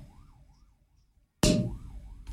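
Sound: police car siren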